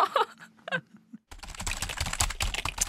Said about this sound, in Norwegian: Hva er det du skriver ned?